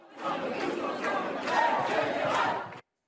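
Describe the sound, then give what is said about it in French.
A large crowd of protesters in the Les Halles shopping centre in Paris shouting and chanting together "49.3, ça ne passera pas, la retraite à 60 ans" in a loud, steady roar of mixed voices that swells slightly midway, then cuts off abruptly. “de nombreux manifestants ont envahi le centre commercial des Halles avant de déambuler dans la galerie commerciale, puis dans les couloirs du métro et du RER.”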